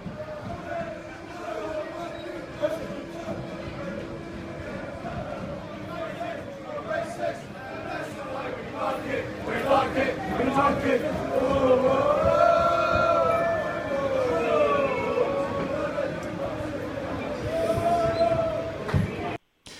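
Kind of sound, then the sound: crowd, football supporters chanting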